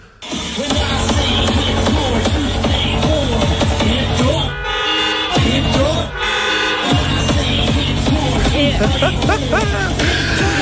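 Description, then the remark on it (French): Loud, pounding electronic dance music with a steady beat, cut through by long blaring car horns honking repeatedly from people in their cars with windows closed at a drive-through rave in Schüttorf, several overlapping blasts in a crowded, outdoor-sounding mix. “Et en place, les gens, en place de crier, tout le monde klaxonne de partout, les fenêtres fermées, tout le monde est dans leur voiture, tu vois les autos qui shake d'un bord et de l'autre.”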